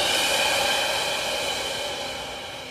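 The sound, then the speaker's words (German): A long, steady exhale of a deep breath during a guided breathing exercise, a soft airy hiss that holds for a few seconds and gently fades toward the end, with no talking. “Und wieder aus.”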